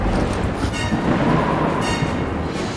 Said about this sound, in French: Une terrible tempête vient de se lever en un quart de seconde. Le ciel vire au sombre. Le vent fait plier les arbres.